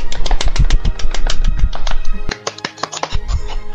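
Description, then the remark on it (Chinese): A burst of applause sound effect: dense, rapid clapping from many hands, loud and steady at first, then thinning into scattered claps toward the end, with no voices. “好，准备，这时候进掌进掌声，进掌声，进掌声。”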